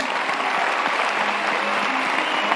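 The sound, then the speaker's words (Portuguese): An audience applauds together in a round of applause for Jesus at the close of a church gathering, a dense, steady wash of many hands clapping that holds at an even, fairly loud level for the whole stretch, with no voices standing out. “Então, uma salva de palmas para Jesus.”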